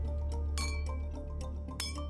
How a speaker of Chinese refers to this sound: 我敲了敲空酒杯